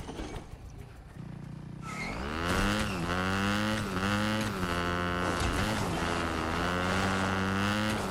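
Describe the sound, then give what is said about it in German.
A video game motorcycle engine starts up and revs loudly, its pitch rising and dipping in repeated surges as it runs steadily, with no talking over it. “Also ich habe Motorrad.”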